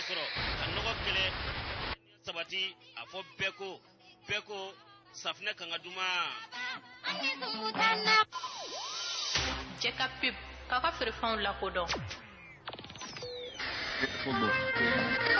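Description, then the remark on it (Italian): A radio dial sweeps across Malian radio stations, with bursts of hissing static cutting abruptly between brief snatches of voices and music, each fragment lasting only a second or two before switching. “abbiamo a disposizione un apparecchio radiofonico con cui adesso possiamo andarci a sintonizzare sulle emittenti radiofoniche maliane. Andiamo a sentire cosa troviamo di frequenza in frequenza.”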